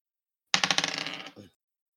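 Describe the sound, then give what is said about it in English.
Dice clatter across a hard tabletop in a quick burst of rattling clicks that slow and fade over about a second, with one last small knock as they settle; the roll comes up a one. “I just rolled a one.”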